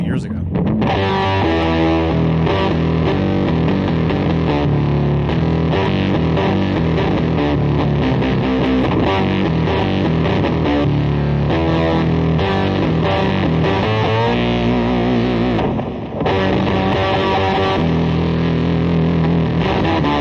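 A loud electric guitar played through a Siren Effects Midnight Train fuzz pedal, a Big Muff-style fuzz, with a thick, saturated tone plays a continuous run of chords and riffs for about twenty seconds, with only a brief dip near the end.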